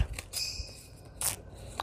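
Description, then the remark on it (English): Two crisp snips of decorative scissors trimming the top and bottom of a sheet of paper, spaced about a second apart, with a faint rustle and no talking in between. “And I'm just going to trim the top and the bottom uh, for a different look.”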